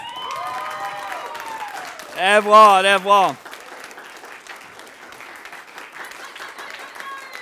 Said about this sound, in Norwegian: Så kan alle andre reise seg. Og så kan dere gi dem en god applaus.